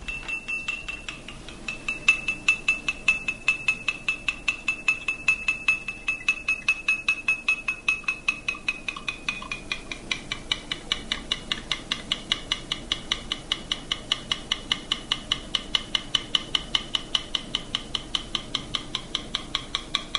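A spoon taps steadily and rapidly against a glass of water in which sugar has been stirred, as an experiment; each clink rings clearly. The ringing pitch drops in the middle, then gradually climbs back to its original pitch. No one speaks.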